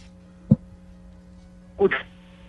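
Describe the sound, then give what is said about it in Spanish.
A poor phone connection on a live radio call hums steadily with electrical interference, broken by two short, garbled bursts of sound where the caller's voice seems to cut in and drop out again. “Te, perdemos por momento.”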